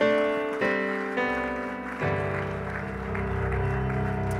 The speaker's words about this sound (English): Would you give the Lord another hand clap of praise?